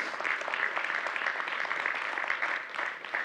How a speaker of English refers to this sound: And you guys can cheer these guys. These guys have worked hard over the last year to bring these pieces in.